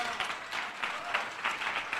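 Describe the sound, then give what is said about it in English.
An audience claps for Jesus together in a steady rhythm, a dense wash of many hands with regular accented beats roughly three times a second, continuous and fairly loud throughout. “Clap for Jesus.”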